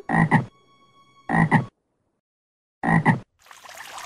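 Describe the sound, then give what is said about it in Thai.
A frog croaks three times, each a loud, throaty double-pulsed call separated by pauses, followed by a soft hiss of water at the end. “หลังจากนั้นเขาก็ได้มองดูตัวเองที่สะท้อนบนผิวน้ำก็ได้พบว่าเขาได้กลายเป็นกบไปเสียแล้ว”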